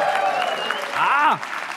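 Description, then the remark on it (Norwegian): A conference audience at Digital fremtid 2023, in the hall at The Hub in Oslo, claps steadily for about two seconds: a dense, even patter of many hands, with a voice or two calling out and a brief rising cheer near the end. “Konferansen som skal få fart på digitaliseringa av Norge, da, eh, med et herlig publikum som du hører her i salen på The Hub i Oslo.”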